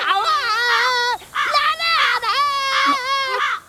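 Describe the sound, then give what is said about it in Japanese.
A shrill, warbling voice sings a song about the river badly off-key, holding a leaf as a microphone, so strained it sounds like shrieking. Three loud, sustained phrases are separated by short breaths. “それは歌なのもちのろんやえてっきり尻尾を踏まれて悲鳴でもあげたのかと思ったカノンさん率直に言ってあなたの歌はとても下手よ”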